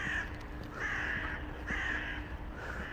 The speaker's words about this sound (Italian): sentite che bello mamma oh mia si respira ciao buongiorno uccelli